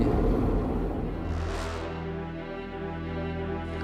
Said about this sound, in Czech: První vlak se sovětskou vojenskou technikou dnes odjel také z vojenského prostoru Libavá na Olomoucku. Teď už zazněl malým nádražím klakson lokomotivy. a vlak se pomaličku rozjíždí.